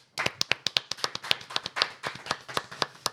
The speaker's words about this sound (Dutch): Wel, dus, een applaus daarvoor.